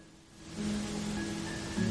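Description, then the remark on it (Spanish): Wind sweeps through tree leaves in a steady, hissing rustle that swells slightly after the first moment and holds evenly, with a faint low hum underneath and no voices. “sonido tan relajante, eres del viento azotando o meciendo las hojas de los árboles.”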